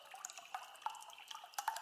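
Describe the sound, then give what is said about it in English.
A quiet, steady trickle of liquid pouring and splashing behind a couch in a fireplace, with small drip-like plinks breaking through the continuous flow, heard alone. “I hear another huff, followed by a sound I can't recognize at first like the sound of pouring water behind the couch in the fireplace.”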